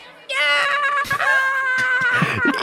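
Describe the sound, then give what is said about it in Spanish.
A loud, high-pitched sustained scream from a heavy metal singer, starting abruptly after a brief pause and wavering slightly as it holds for a couple of seconds. “Está bueno, y es cuando grita el, el”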